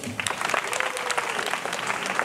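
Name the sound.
audience applause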